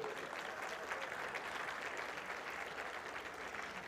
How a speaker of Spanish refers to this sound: Denle un aplauso a las esposas, por favor, ahí, hombre.